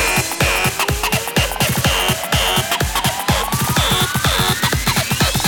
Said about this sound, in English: Okay, now we need some fat distortion. More distortion. I said more distortion.